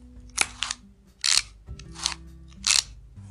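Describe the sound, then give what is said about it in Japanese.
The lever of a Midori masking tape cutter is pulled twice, each pull advancing about 2 cm of tape, and the roughly 4 cm length is cut, giving a handful of crisp mechanical clacks and snips spaced about a second apart, with no talking. “今2回引いたんですよ。これで約4センチ。今切りました。”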